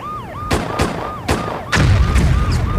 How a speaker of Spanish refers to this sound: Tras una explosión que derriba la puerta, la llegada de la policía toma por sorpresa a los secuestradores que de inmediato abren fuego contra los oficiales mientras corren para no ser aprendidos.